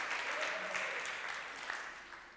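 A church crowd applauds the Lord during a sermon, with a dense, crackling wash of clapping that holds at an even level for a couple of seconds before easing slightly. No one speaks over it.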